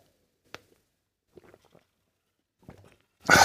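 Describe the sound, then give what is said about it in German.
A small plastic pill box being opened on a Saturday at 8:30: a sharp click, a few soft fiddly taps and rustles, then a brief, louder rattling burst at the end. No voices. “Es ist Samstag, muss meine kleine Pillenbox aufmachen.”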